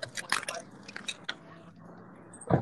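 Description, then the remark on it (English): A phone is dropped and fumbled, a cluster of sharp clattering knocks and scrapes, then a final louder thump near the end. No one speaks. “Yo, it sounds like somebody just dropped the hell out of their phone just now.”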